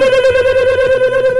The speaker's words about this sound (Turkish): Fakat kim çalıyor? Alo.